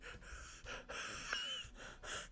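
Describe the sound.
A voice makes a string of breathy, airy bursts in a choppy rhythm, imitating mechanical robot speech with little actual tone, moderately loud with no words spoken.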